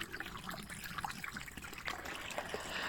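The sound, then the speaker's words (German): Steady rain patters in a garden, a soft continuous wash of small droplets with irregular trickling and dripping, quiet and even throughout with no voices. “Und dann hat es angefangen zu regnen.”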